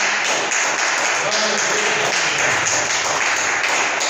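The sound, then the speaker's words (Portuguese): A large church audience applauds God loudly and steadily after a prayer, a dense wash of clapping that holds at full strength for the whole stretch, with some voices mixed into the din. “Glória a Deus, vamos aplaudir o Senhor. Aplauda bem forte o Senhor.”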